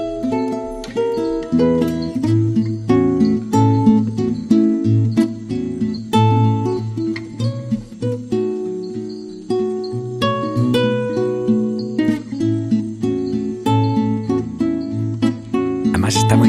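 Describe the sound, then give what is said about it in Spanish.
A song from an album plays at a steady, full volume, with a regular percussive beat and sustained melodic instruments layered over a warm, continuous low end throughout. “vamos a escuchar, una canción que se llama … y que suena así de bien”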